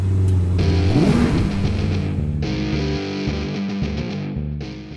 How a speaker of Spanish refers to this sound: Así que arrancamos, motores.